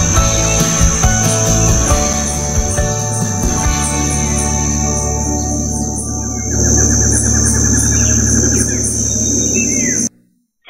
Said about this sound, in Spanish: que nuestros oyentes quedaron encantados eh, escuchando esos sonidos de los pajaritos